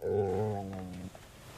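A dog named Billy lets out a single loud, low, rumbling growl lasting about a second, harmonically rich and steady in pitch, then falls quiet with only faint background noise. No one speaks.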